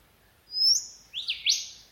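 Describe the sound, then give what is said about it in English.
A golden whistler sings clear: one sustained high whistle, then two quick sweeping notes that end the phrase with a sharp upward flick. No voices, just a faint hush behind the bird. “One of my favourite birds is the golden whistler. You can hear them in the forests of northern Queensland, eastern and southern Australia, and the middle of Western Australia, as well as Indonesia, Fiji, New Guinea, and the Solomons.”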